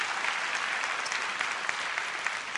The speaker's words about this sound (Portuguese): Aplauda Ele com alegria, com júbilo e fé, que assim vai acontecer.